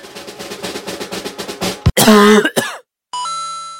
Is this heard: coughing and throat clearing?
yes